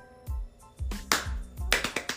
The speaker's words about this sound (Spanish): Aplausos.